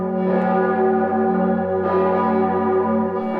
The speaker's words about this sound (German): Die katholischen Kirchen im ganzen Land waren aufgerufen zum großen Geläut. Um 11 Uhr haben auch die Glocken des Mainzer Doms